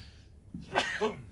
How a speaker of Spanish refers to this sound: Perdón, eso lo vamos a quitar en edición. ya tenía rato así que estaba queriendo estornudar, pero bueno, ya está.